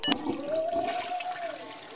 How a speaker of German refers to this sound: Das Washlet TCF 403 SEG. Moderne japanische Toilette. Drücken Sie Seat Open. Der Sitz öffnet sich. Eine Schalttafel mit vielen Tasten. Und jetzt? Drücken Sie Rear. Ihr Gesäß wird gereinigt.